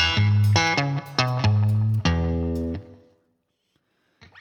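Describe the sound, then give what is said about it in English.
A distorted electric guitar plays a short, typical bluesy riff in the key of E, quick, punchy notes, ending on a held chord that rings out and fades to silence. No one talks. “So it's a typical kind of blues riff. The riff sounds like this.”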